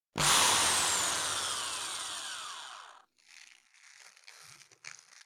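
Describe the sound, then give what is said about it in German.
An HDMI cable is pulled from a box of cables and handled with a loud, hissing scrape lasting about three seconds, followed by softer rustling and light knocks as it is moved around. No one speaks. “Ist das nicht ein wunderschönes Geräusch? Das Geräusch von einem HDMI-Kabel.”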